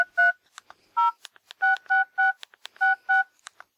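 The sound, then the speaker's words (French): A quick series of phone keypad beeps as a text message is typed, about seven short dual tones tapped in an uneven rhythm, clear with faint clicks between them and no voices. “Il envoie illico un texto à son réseau.”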